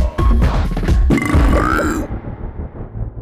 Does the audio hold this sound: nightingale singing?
no